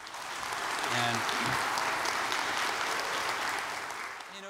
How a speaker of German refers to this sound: Einen Applaus für ihn.